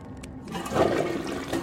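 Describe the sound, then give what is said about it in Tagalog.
A toilet flushes in a cubicle, its rushing water swelling quickly after a quiet start and holding as a steady gurgling roar. “Maya-maya pa ay nakarinig ako ng nagbuhos ng tubig kasabay ng boses na humihipi.”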